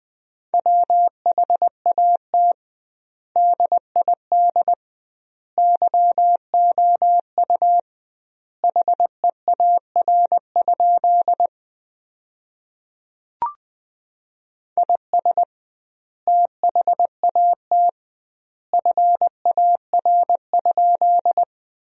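A clear, steady Morse code tone keyed at a brisk 20 words per minute with doubled word spacing. It sends sentences built from the 300 most common words in short and long beeps grouped into words, with generous pauses between them. There is no other sound apart from a single faint click midway.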